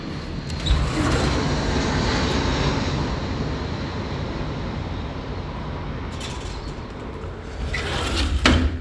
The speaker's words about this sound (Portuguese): Um verdadeiro avião jumbo que traz com ele milhões de pessoas viajando para um outro lugar distante daqui.